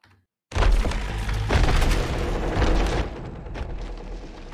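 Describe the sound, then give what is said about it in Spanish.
After a brief silence, a loud, dense wash of creaking wood and deep guttural growling rumbles in and holds steady, a monster voice made for a forest spirit creature, with no speech. “Son sonidos de madera y también hay un sonido gutural.”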